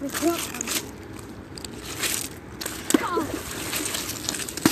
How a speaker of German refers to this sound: Hier, ähm, ich werf mal einen fetten Stein ins Wasser.